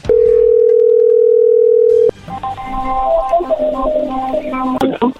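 A loud, steady telephone dial tone of an outgoing call to a woman hums at one low pitch for about two seconds, then cuts off abruptly as a voice starts speaking over the line.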